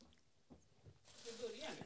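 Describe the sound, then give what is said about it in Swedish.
Quiet, wet mouth noises of someone chewing and smacking while eating, soft and irregular at first, then a denser burst of squelchy smacks toward the end. “Det är, folk gillar ju det när vi svär och när vi smackar i...”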